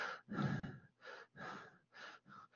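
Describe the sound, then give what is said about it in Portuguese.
A person pants in quick, shallow breaths, like a panting puppy, about six short huffs in a steady rhythm, fairly loud, with no talking. “E aquela é, dá a sensação daquela respiração cachorrinho. A pessoa fica o tempo todo com aquela respiração curta.”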